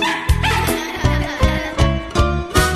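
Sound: puppy barking and yipping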